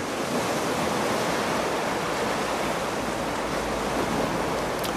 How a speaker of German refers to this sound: Wenn du sie an eines deiner Ohren hältst, kannst du das Rauschen des Meeres hören.